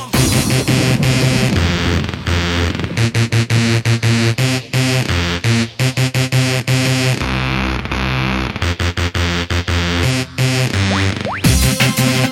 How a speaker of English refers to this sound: Yeah, it makes sense why it never got released, doesn't it? A little bit too close, but not to take anything away from this because this was an absolute dance floor banger. I'm so glad I've got it in my collection now.